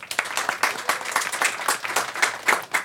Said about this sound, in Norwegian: Til og med folk fra Justisdepartementet klapper for deg nå.